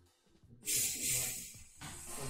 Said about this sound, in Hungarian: Kinyitom, hogy ne akkor sziszegjen